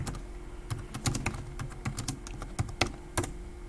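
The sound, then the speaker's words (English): Quick, irregular clicking of keys being tapped while typing a text message, a steady run of light taps with small pauses, over a faint low hum and no talking. “Uh, I'm just gonna text him that I can't hear”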